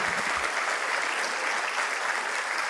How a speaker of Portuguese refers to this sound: Vamos exaltar o Senhor, amados. Vamos aplaudir o Senhor, a Sua palavra que é fiel, aleluia.